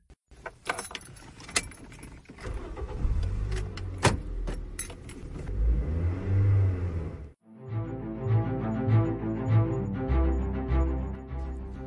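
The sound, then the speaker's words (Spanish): Keys jangle while a car engine revs and climbs in pitch underneath, followed by a steady, droning engine hum after a brief break. “Sí, el auto ya está acá.”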